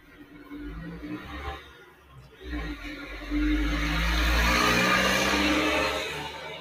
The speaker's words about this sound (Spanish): Una moto. Ese fue una moto, un camión,